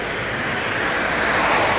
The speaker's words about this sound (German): ein Hubschrauber, glaube ich. Ich weiß nicht, was das für ist.